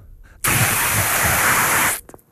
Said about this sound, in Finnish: Öö, kaasusumutin. niin on. Tai joku, su, joku sumutin. se on kaasusumutin.